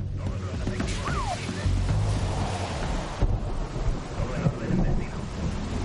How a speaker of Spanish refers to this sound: Llueve.